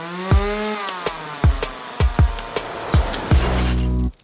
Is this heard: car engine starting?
no